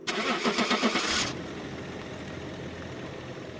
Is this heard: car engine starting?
yes